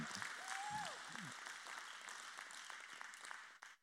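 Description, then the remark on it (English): An audience claps during a sermon in response to the preacher's line about vision and provision. The applause is a steady wash lasting a few seconds, dense and fairly loud, with a brief rising whistle or whoop near the start before the clapping fades out. “You can clap on that one.”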